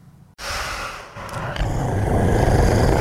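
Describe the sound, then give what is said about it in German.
A deep, rough growl with heavy, snorting breaths from someone in a realistic monster costume swells in after a brief quiet start and keeps rumbling loudly and steadily to the end, with no talking. “Ich könnte schwören, das Knurren wäre echt.”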